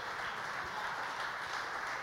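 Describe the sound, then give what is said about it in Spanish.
An audience applauds for God at night, with many hands clapping together in a dense, steady wash of sound. It stays at an even, fairly loud level throughout, with no voices on top. “¿Cuántos pueden dar un aplauso a Dios en esta noche?”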